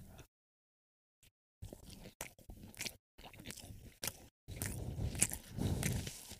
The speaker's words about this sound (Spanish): Ya fueron cinco minutos de comer pan.